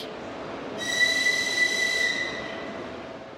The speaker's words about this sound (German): Ein früher Donnerstagmorgen am Kiewer Hauptbahnhof. In dem wuchtigen Bahnhofsgebäude aus der Sowjetzeit ist viel los. Menschen eilen zu den Gleisen oder sie warten darauf, dass ihre Angehörigen ankommen.